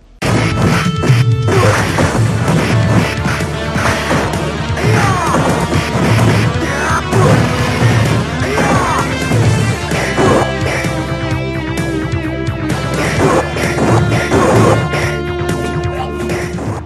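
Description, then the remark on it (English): Busy, synthesizer-heavy video game music from Final Fight CD, whose enhanced music plays loudly and continuously, with layered sustained synth tones, a driving melody and punchy percussive hits throughout, and no voices. “someone's really going nuts with a synthesizer there, but uh, it just sounds like when someone on OverClocked ReMix used to cover those old 16-bit game yeah, soundtracks.”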